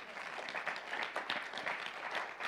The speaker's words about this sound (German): Dafür kannst du klatschen, also wenn du willst.